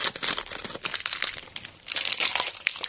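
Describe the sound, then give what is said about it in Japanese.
Plastic wrapper crinkling continuously as a small individually wrapped curry-flavored rice cracker packet is handled, a bright, rustly crackle with irregular bursts that swell louder toward the end, no voices. “はい、一つずつ、こう、個包装になって個包装になっております。”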